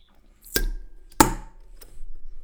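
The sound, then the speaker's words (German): A swing-top bottle being opened for a toast: two sharp, snappy clacks about half a second apart, the second with a brief hollow ring, then a faint click, with no voices. “In der Bügel, in der Bügelflasche. Ich hoffe, man hat es gehört.”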